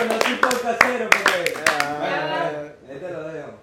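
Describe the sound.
A short burst of scattered hand claps, about ten sharp, irregular smacks in the first two seconds, mixed with lively talking that continues after the clapping stops.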